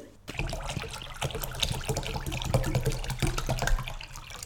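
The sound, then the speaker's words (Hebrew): Water pours steadily into a deep bowl, filling it for a science experiment done at home, a continuous splashing trickle with faint gurgles that holds at an even level for several seconds, with no talking. “קערה עמוקה מלאה מים.”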